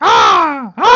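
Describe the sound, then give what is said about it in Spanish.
A person loudly imitates harsh, squawking bird calls: one long, drawn-out caw that slides downward in pitch, followed right away by the start of a second. “También se escuchan pájaros haciendo un ruido que suena más o menos así.”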